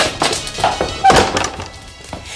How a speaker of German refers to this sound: Jetzt nichts wie raus! Nichts wie raus! Und Tür zu!